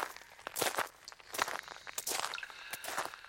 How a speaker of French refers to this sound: Vous commencez à entendre le bruit de vos compagnons qui s'approchent.